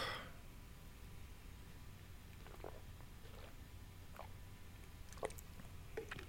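Someone quietly sips water, with a few soft, scattered slurps and swallowing clicks spaced apart over a near-silent background and no talking.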